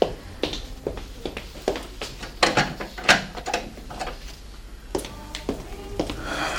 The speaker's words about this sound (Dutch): Draai de deur van de badkamer zachtjes op slot.